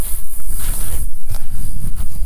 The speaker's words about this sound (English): This is a good little spot for her to stop kind of gather her uh, emotions a little bit since the wind's making her a little bit nervous out here.